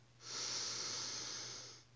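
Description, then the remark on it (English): A single slow, deep inhalation, airy, swelling over about a second and a half with a soft breathy hiss before tapering off, taken as the second of three deep breaths in a guided breathing exercise; no one speaks. “Another deep breath, breathing in”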